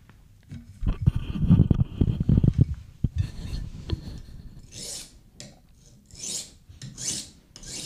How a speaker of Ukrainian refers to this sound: Ножом по камню, а не навпаки. Каменем. Можна і каменем. Справді? Ну так. Да. Я так косу точив.